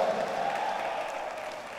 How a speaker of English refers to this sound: Clap your hands for God the Father.